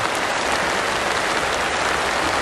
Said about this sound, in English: Folks, I apologize for the rain.